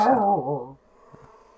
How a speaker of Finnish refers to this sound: Kato, siis kissalla on kiima. Niin nämä on leikkinyt, ihan, nämä on leikkinyt ihan hulluna keskenään nämä, niin kun nämä on aamusta iltaan niin tota, kurnutusta, että Joo. tätä just kuuluu varmaan sullekin asti.